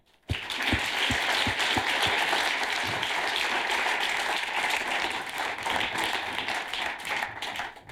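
A crowd breaks into sustained applause that starts abruptly and holds steady for several seconds, dense overlapping claps with a few louder individual claps near the start, no one speaking.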